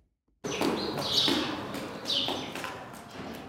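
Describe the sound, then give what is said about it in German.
Nervous sparrows chirp in a cow barn with relaxed cows on the edge of the town of Chur, a few bright, quick chirps rising over a steady, rustling background, moderately loud, with no one talking. “Zwischen nervösen Spatzen und entspannten Kühen sind die SVP-Mitglieder heute im Stall am Rand der Stadt Chur vor die Medien getreten.”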